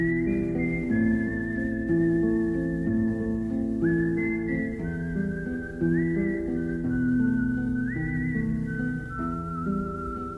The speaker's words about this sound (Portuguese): sei se estou a fazer confusão, mas é na banda sonora desse filme que há o Assobio. É, é nessa.